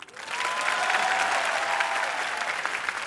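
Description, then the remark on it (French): A crowd applauds steadily in answer to a call to applaud if they have trouble getting up in the morning, a dense wash of clapping hands that swells quickly and holds at an even, fairly loud level for a few seconds without anyone speaking. “Applaudissez ceux qui ont du mal à se lever le matin.”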